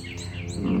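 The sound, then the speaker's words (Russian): Birds chirp and sing in quick, sweeping high notes over a low, steady background rumble, with no voices, lasting under a second. “Пение птиц, конечно,”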